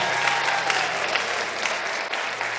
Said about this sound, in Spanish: Vamos, New Season, si tú lo crees, dale ese aplauso al Señor.